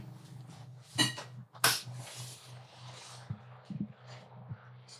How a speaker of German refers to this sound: Warte, ich mach kurz Fenster auf.